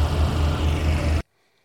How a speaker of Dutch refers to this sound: Wat een romantisch geluidje op de achtergrond. Ja, dat was de aggregaat. Of, eh, of eh, nee, de ambulance die stond daar stationair te draaien. En eh, die moest de airco aanhouden, geloof ik.